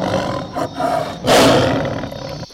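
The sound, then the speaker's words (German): A tiger in a video game's bonus round roars loudly, a growling buildup swelling into one broad, harsh roar that fades out over a couple of seconds, with no one speaking. “Und dann Bonus Round 1, Level Klingt das folgendermaßen. Tiger. Der Tiger klingt so.”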